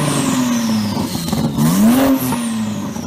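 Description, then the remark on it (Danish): A powerful Porsche turbo dragster engine revs loudly, its pitch sinking, then surging up in a sharp rev before settling into a steady roar, with no voices. “Jamen, det der, det er en, det er en Porsche, men det er en turbo, et eller andet voldsomt uh, dragster-bil, tror jeg.”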